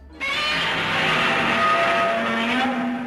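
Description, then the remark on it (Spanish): A Godzilla roar sound effect bursts in loud, a harsh, screeching bellow with a strained, grinding edge that holds steady for about three seconds before cutting off. “Y ahora va a sonar Godzilla.”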